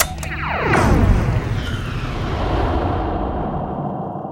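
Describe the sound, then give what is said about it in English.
A spaceship engages a slip space jump on a course to the Yug Falls Circuit Nexus: a rising whoosh with sweeping tones erupts into a loud, rumbling boom that roars steadily and slowly fades out, with no voices. “Slip space junction keys confirmed. Clearance chain granted. Seamless route achieved.”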